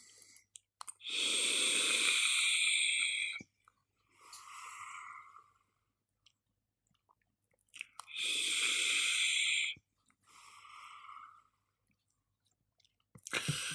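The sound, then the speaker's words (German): Two long, airy hissing draws on a Newell Crown 3 e-cigarette filled with Rainbow Lemonade liquid, each lasting a couple of seconds and followed by a softer, shorter exhale, with a third draw just beginning at the end. No one speaks. “Also, dann nehme ich mal einen Zug von dem Rainbow Lemonade aus meinem Newell Crown 3 und schauen wir mal, lassen wir uns überraschen.”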